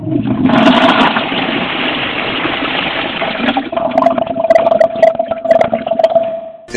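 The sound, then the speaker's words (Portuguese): A toilet flushes in a video game as a character sitting on it starts to be sucked into the toilet: a loud rushing gush of water for a few seconds, then gurgles and drains with sputtering, bubbly bursts over a steady tone. “deixa muito tempo, ele vai começar a ser tragado pela privada.”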